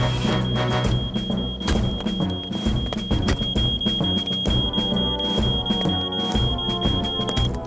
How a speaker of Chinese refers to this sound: 那个火警警报器是好的，诺曼，你很清楚，是你故意触发它的。